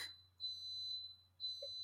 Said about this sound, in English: That's my coffee maker going off, if you can hear it beeping in the background.